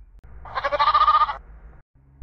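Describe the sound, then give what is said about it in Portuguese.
A single sheep bleats once, a loud, wavering baa lasting under a second, heard alone over a faint low background hum. “Pulava uma ovelha, não caía na lagoa caía na pedra, quebrava o pé e chorava.”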